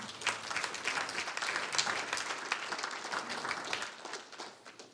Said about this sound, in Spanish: Un aplauso al Señor.